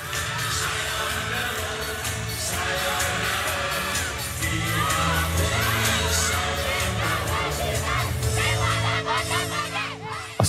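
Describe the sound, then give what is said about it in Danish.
A large crowd roars and cheers continuously, with shouts and whoops rising over a dense, loud wall of voices, celebrating Denmark's 30-23 women's handball win over Russia on a Tuesday evening that put Denmark into the semifinal. “Og skal vi lige genbesøge, hvordan det lød tirsdag aften, da vi slog russerne?”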